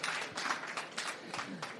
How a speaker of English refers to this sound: I think yes. a big round of applause for her.